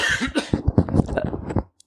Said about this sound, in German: Ich muss mal ganz kurz räuspern.